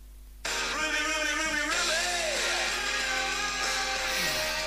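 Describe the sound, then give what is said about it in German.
A stadium chant sung by a large crowd bursts in after a brief hush and plays on loudly and continuously, with massed voices carrying the melody, played back through a phone speaker turned up loud. “Also dieses Lied wird man ab sofort nicht mehr in der Liga hören.”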